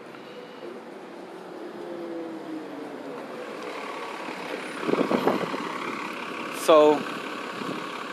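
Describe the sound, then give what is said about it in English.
A large bus rumbles, its engine droning steadily before a short, sharp hiss of air brakes near the end; a man's voice is briefly heard over the noise. “Here come a bus”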